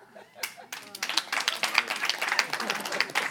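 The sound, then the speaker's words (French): An audience breaks into applause, a few scattered claps quickly swelling into a dense, steady round of clapping that carries on at a moderate level for a few seconds. “Par applaudissement, qui connaît quelqu'un d'ordinaire en sexe?”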